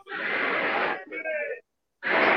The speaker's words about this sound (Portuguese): A gente também está escutando o som do carro de som.